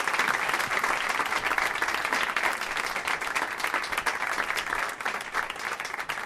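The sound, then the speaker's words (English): Sustained audience applause for the guests fills the whole stretch, a dense steady wash of many hands clapping, loud and even without pauses, with no talking over it. “Let's hear it for all my guests.”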